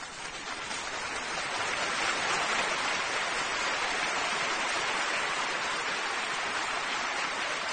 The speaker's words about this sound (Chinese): 哎，谢谢谢谢，呃，谢谢大家盲目的掌声和支持